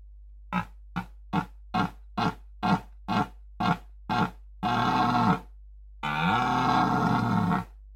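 A male red deer stag's bellow during the rutting season: about a dozen short, rhythmic guttural grunts, then two long, loud, harsh roars, with no other sounds.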